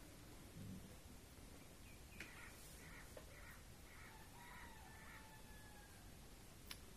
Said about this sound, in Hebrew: התרנגול מרחוק, העורב, הנשימה שלנו.